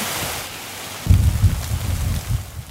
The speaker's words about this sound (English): Yeah, a significant amount of rain falling in with thunderstorms rolling into the interior. Here's a look at what we saw earlier today. A heavy rainstorm hit the Okanagan. This is the video this afternoon with thunder and lightning.